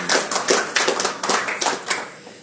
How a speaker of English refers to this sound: Can you can give them a round of applause if you like.